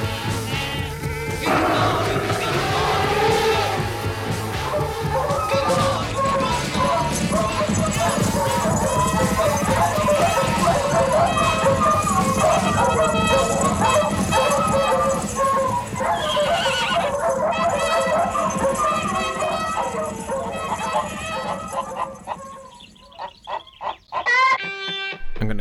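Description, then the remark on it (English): A fox hunt with horses and barking hounds plays beneath dense music, with horses whinnying and hooves clip-clopping; as the music fades near the end, the hunt sounds carry on briefly before cutting off. “Listen for the longer and more musically absent fade out where it just ends with the hunt, and listen to the edit into the reprise.”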